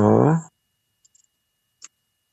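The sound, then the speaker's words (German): A brief hum of a voice opens, then a handful of sparse, uneven key taps follow in near silence as someone types a web search on a keyboard with one finger. “Ich höre dich mit dem Einfingersystem tippen.”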